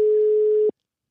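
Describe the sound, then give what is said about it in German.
A single steady telephone ringback tone from a call on a mono telephone, ringing on only one side: a clear mid-pitched beep lasting under a second before cutting off, heard on its own with no talking. “Das klingelt nur auf einer Seite.”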